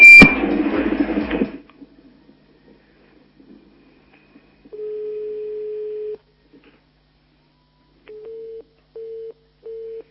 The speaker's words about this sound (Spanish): Bueno, pues el teléfono se ve que está comunicando, entonces lo que vamos a hacer es leerla aquí en directo y espero que la esté escuchando.